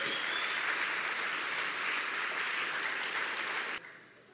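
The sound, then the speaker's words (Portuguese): A crowd applauds the Lord steadily, a dense, sustained wash of many hands clapping at once, holding strong for several seconds before cutting off abruptly near the end. “Dá uma salva de palmas ao Senhor, porque é só através dele.”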